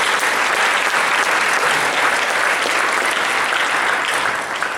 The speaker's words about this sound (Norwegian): Denne helga har vi sett minst 100 ungdommer respondere på frelse til Jesus. Og det er helt fantastisk. Dere må gjerne klappe for det igjen.